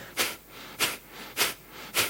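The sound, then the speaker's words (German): A demonstration of fire breath, a Kapalabhati-style yogic breathing: four rapid, forceful breaths pushed sharply through the nose in a steady rhythm, each a breathy, hissing burst with softer airy gaps between them. “Also Feueratem kann aus sich anhören wie”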